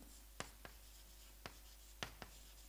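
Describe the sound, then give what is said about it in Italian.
A red marker squeaks and taps across a board as words are written, in about five short, quick strokes at uneven intervals, fairly quiet against a faint background hum, with no one talking. “Quindi, quindi la ragione, adesso ci metto qui, la ragione è un fatto di teoria, lo metto rosso, fatto di teoria”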